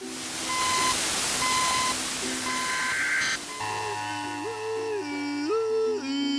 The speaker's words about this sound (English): We interrupt this episode of The Random Bush to bring you the now updated, new and improved emergency broadcast alarm, as delivered by a complete idiot.